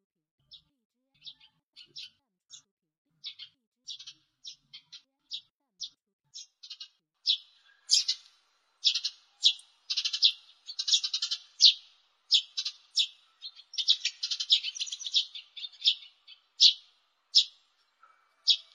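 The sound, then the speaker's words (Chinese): A house sparrow chirps repeatedly in short, bright bursts, starting sparse and growing busier and louder, with rapid overlapping cheeps filling the middle and end. No one speaks. “现在，董老师请你们听一种鸟叫声，这种鸟是什么鸟呢？ 麻雀。”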